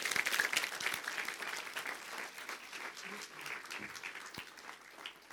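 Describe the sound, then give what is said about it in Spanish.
An audience applauds the Lord steadily, a dense wash of many hands clapping at once, loudest at the start and easing slightly but continuing throughout with a faint murmur of voices underneath. “Oh, si va a aplaudir al Señor, hágalo bien, hermano.”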